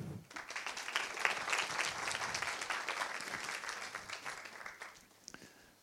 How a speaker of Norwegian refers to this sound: Vi tar han godt imot med en applaus.